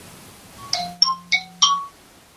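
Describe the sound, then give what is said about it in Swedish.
A rapid run of four bright electronic dings from a phone, each ringing briefly with a clear metallic tone before the next, forming a short rising notification chime. “Ja, telefon.”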